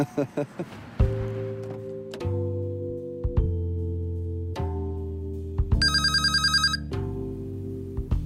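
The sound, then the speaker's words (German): A phone rings with an incoming call from Larry Graham, a melodic ringtone: a series of sustained, steady tones stepping between pitches, broken midway by a quick trilling burst, loud with no one talking. “Larry Graham ruft an.”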